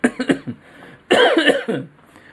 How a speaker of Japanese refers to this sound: まあ、喉がね、まあ、ご覧のように、まだいまいちまだ咳が止まらないんですね。うん、なんでしょうね。